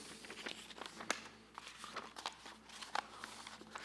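A sheet of paper is handled and unfolded, giving a string of soft, irregular crinkles and crackles with a few sharper snaps, fairly quiet and with no talking.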